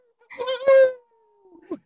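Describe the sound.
A person howls like a wolf: one drawn-out, fairly loud vocal tone that rises and then slides down and fades. Brief voice sounds follow at the end.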